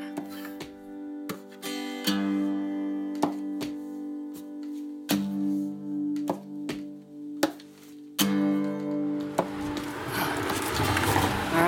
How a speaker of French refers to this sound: Il y a les cloches qui sonnent en ce moment. Les cloches sonnent. C'est très faible, mais je les entends. les cloches.